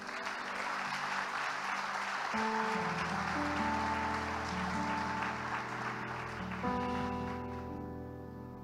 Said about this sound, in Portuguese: Eu queria que você aplaudisse o Messias.